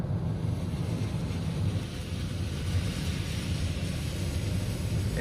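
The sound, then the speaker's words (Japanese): Heavy rain pours on the Noto Peninsula, Japan, at 0:45 at night on the way north toward Nanao, in a steady, unbroken hiss over a deep, continuous rumble, loud and even throughout with no pauses and no voices. “今時刻は0時45分です能登半島北上していますえ七尾の方に向かっているんですが雨が強く降ってきました”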